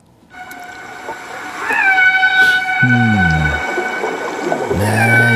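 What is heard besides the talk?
dolphin vocalizations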